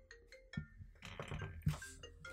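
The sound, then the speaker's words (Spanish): A bell rings with several bright metallic strikes, clinking tones that linger and overlap, moderately loud, with no one talking. “Salvada por la campana.”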